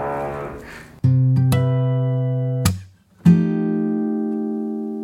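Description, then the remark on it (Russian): A neighbour's power drill in Sweden whines through a wall in two loud, steady bursts separated by a brief pause, each starting abruptly with a sustained, even-pitched motor drone. “началась Дерель у Паши в загнивающей Швеции соседи буянят”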